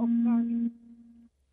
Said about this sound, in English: That's just my alarm going off. I apologise for my phone.